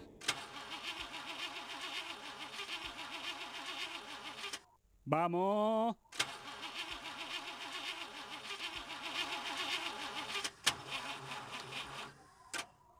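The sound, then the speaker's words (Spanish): A car engine cranks over and over without catching, a rhythmic grinding chug, broken by a brief rising whine before the cranking resumes; a voice speaks briefly near the end. “Che, flaco, ¿no me ayudas a empujar un poquito que no llego a la radio?”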